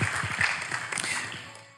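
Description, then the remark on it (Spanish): An audience bursts into sustained applause for the Lord, many hands clapping at once in a dense, steady patter that tapers off slightly toward the end, with no voices heard. “Démosle un aplauso al Señor que nos puede usar para cambiar muchas vidas.”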